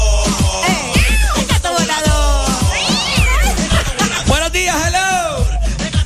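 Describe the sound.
A person imitates a cat with a run of loud, drawn-out meows and yowls, the vocal pitch swooping up and down in rapid succession over a steady, thumping beat underneath.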